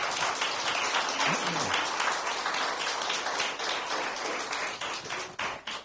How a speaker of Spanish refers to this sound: Denle el aplauso, déselo, déselo.